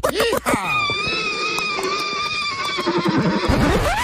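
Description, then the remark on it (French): A horse whinnies loudly, one long drawn-out neigh with a shrill, wavering pitch that quivers and trails off over several seconds, with no talking. “Oh là là là là, qu'est-ce que t'as fait au cheval,”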